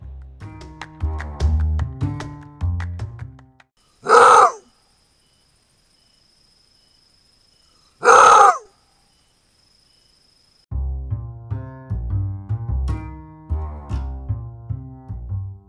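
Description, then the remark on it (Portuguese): Two loud, harsh roar-barks of a maned wolf (lobo guará), a call called an aulido, ring out about four seconds apart, each short and isolated against near silence, with background music playing before and after the calls. “O bicho que a gente acabou de ouvir foi o lobo guará.”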